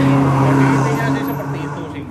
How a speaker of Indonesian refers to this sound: Ini motor-motor di Maldives nih berisik sekali ya. Iya, makanya saya bingung nih kita di Maldives kok banyak motor ya.